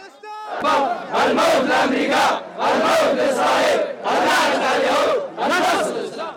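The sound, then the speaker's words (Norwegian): A crowd of protesters in Baghdad, Iraq chants slogans in unison, 'Yes to the Koran, yes to Islam', loud rhythmic bursts of many voices repeating in phrases with brief pauses between them. “Ja til Koranen, ja til islam, roper demonstranter i Bagdad i Irak.”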